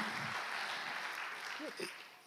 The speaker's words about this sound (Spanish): Así es que les damos un fuerte aplauso. Ahí están los flamantes graduados.